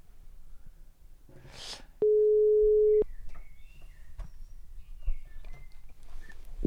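A single steady electronic telephone tone sounds for about a second while a radio station, Radio Monobloc, dials to call a guest. The tone is loud and constant in pitch and follows a brief hiss. Faint background clicks and chirps continue around it, with no talking.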